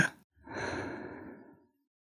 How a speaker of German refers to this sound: Und langsam ausatmen.